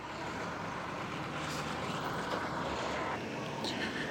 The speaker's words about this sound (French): énorme bus rouge. Oh là là, je vous régale avec le bruit là.